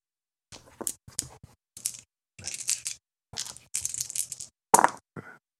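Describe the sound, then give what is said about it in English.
Dice clatter across a hard surface in several quick bursts of sharp, rattling clicks, fairly loud, with short pauses between rolls and no one speaking. “I love the dice sounds”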